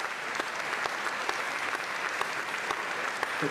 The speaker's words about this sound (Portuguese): Portanto, agora que eles estão afinados, pode entrar o um maestro, lá vai o um maestro, as pessoas batem palmas, a música está pronta para começar.